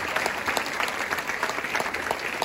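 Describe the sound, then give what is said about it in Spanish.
Steady audience applause in an auditorium, given in thanks to God, a dense wash of many hands clapping at once, sustained and fairly loud throughout with no voices standing out. “Cuando le damos gracias a Dios y le damos un aplauso por eso a nuestro Señor.”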